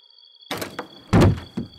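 Heavy, irregular pounding on a bedroom door: four loud thuds within about a second and a half, the third the biggest and most booming, with a faint steady high-pitched whine in the background.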